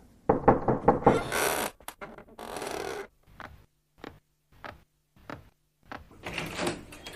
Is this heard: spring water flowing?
no